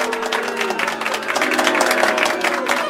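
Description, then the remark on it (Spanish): A crowd boos steadily for a few seconds, a low sustained groan of many voices over dense noisy chatter and scattered clapping, growing slightly louder toward the end. “No son necesarios los insultos, no son necesarios los abucheos, manga de infelices mediocres que se piensan.”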